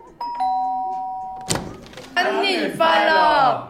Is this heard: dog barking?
no